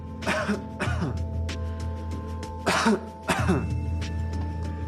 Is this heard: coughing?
yes